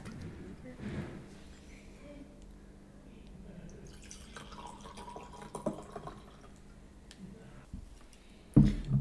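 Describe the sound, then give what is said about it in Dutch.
A light, fruity sparkling wine made sparkling with added CO2 is poured into glasses, a soft trickling and fizzing that rises and falls over several seconds, with faint voices underneath and a sharp knock near the end as a glass is set down. “gaan zal jullie een glaasje inschenken.”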